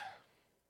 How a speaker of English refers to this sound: That was a yawn. It's all good.